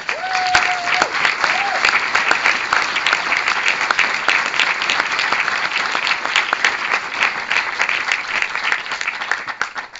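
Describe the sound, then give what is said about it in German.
Sustained applause from an audience for screenwriter Chris Kraus fills the whole stretch, dense and steady with many overlapping claps, fairly loud, with a brief whistle-like tone near the start. “Ähm, auch bitte jetzt nochmal einen großen Applaus.”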